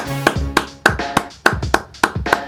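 Steady rhythmic clapping, about nine sharp, even claps in a row at a brisk pace, over a soft sustained musical hum with no talking.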